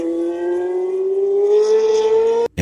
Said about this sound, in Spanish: Ya eran más de las 4 de la tarde, pero la emoción que siempre estuvo a flor de piel ganó aún más terreno cuando pasaba el auto de Lole con aquel sonido inconfundible del Cosworth 8 cilindros